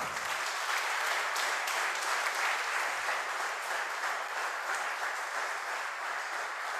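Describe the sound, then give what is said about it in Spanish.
An audience bursts into sustained applause for the King of Glory, a dense, steady wash of many hands clapping at an even loudness for several seconds with no voices standing out. “Dale un aplauso al Rey de Gloria.”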